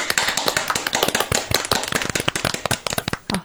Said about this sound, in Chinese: 我特别想呱唧呱唧， 来来一起鼓掌， 来。